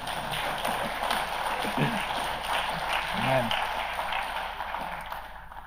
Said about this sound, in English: Can you give Jesus um, a big round of applause? Amen.